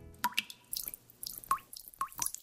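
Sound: water dripping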